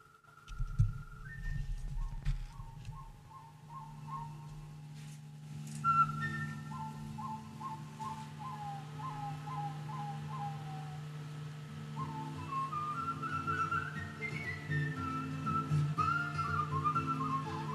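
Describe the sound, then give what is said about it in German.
Someone whistles a melody, clear stepping notes in short phrases, carried over a low, steady backing drone with no talking. “Komm, wir pfeifen mit bis zum Schluss.”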